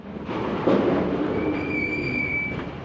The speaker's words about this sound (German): Ein gewaltiger Bagger lädt Eisenerze auf einen Lastwagen. Die Gesteinsbrocken wurden zuvor aus der Erde geschlagen und werden nun verladen.